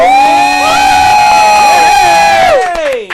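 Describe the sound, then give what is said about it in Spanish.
A crowd cheers loudly for the crew of El Divine Show, with long sustained whoops and yells held at a steady high pitch for a few seconds before sliding downward and fading near the end. “Así que un fuerte aplauso para el Corillo de El Divine Show.”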